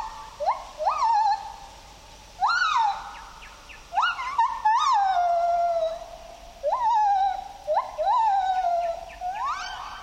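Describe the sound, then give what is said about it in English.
A pair of white-handed gibbons in Khao Yai National Park, Thailand, call in a duet to defend their territory: loud rising whoops that swoop up and fall away, repeated in quick succession and overlapping at times, with no talking. “Listen as a pair of these small apes creates a duet with their vocalizations.”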